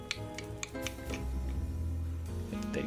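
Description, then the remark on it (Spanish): Light, irregular tapping clicks from a mobile phone keyboard, a handful of quick ticks spread across the moment, sitting over a steady low tonal hum. “Sí, porque yo escucho tu No, lo que escucha, lo que está escuchando es el, eh, el teclado”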